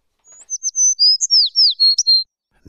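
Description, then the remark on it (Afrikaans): A small sparrow chirps as it lands beside a daisy, in a quick run of about seven bright, high tweets, followed by a brief soft low thump as it ends. “Net toe kom sit daar 'n klein mossie langs die madeliefie.”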